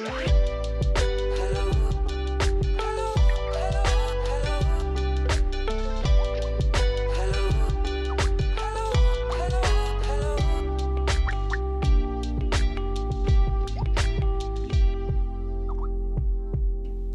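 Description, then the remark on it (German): Bright instrumental jingle music with a steady rhythmic beat and quick plucked or struck notes over a low bass line, played loud and continuously with no voices, thinning out at the very end. “Dann so hören wir doch jetzt nochmal Chris Sommers. Di, di, di. Nein, unseres.”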